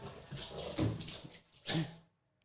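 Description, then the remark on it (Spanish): A dog, Montana, barks excitedly after an ambulance and then a neighbor pass by, a busy stretch of yelping sounds peaking in two loud bursts before falling abruptly silent. “Pasó una ambulancia, y luego pasó un vecino y mi perro Montana se puso loquísimo.”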